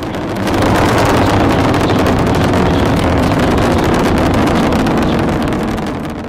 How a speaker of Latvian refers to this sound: Jo raķete startējot rada tik spēcīgu skaņu, ka cilvēks tūmā atrasties nevarētu. Vienkārši viņam pārplīst bungādiņas tā skaņas spiediena dēļ. Tas skaņas skaļuma līmenis sasniedz 150 decibelus.